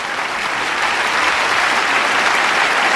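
A large theatre audience at the Teatro de la Zarzuela in Madrid applauds steadily and loudly at the premiere of Rafael Alberti's play El hombre deshabitado on 26 February 1931, a dense, sustained wash of clapping hands with no pauses for the full three seconds.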